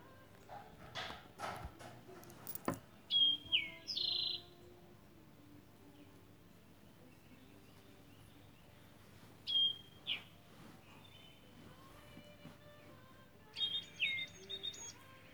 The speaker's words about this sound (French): Et pourtant, je sens qu'il y a toute une vie autour de moi. Et moi, je suis là à profiter du beau temps. juste de temps en temps les oiseaux.